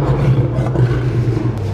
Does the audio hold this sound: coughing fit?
no